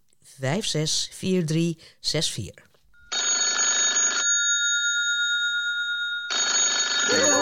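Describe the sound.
After a few seconds of talking, a telephone bell rings loudly in two long bursts separated by a pause, a steady, bright electronic trill.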